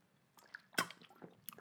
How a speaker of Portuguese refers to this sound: E pausa para beber água